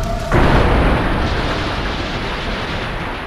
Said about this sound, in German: Der Audi von Hamdi H. knallt in den Jeep des Rentners, der über 150 Meter weit katapultiert wird.